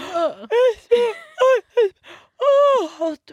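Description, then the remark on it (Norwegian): A person does a drawn-out, voiced imitation of a yawn, as done to get children to fall asleep, in several breathy bursts with rising and falling pitch, fairly loud, with no other speech. “Når jeg skal få mine barn til å sovne fort, så gjesper jeg.”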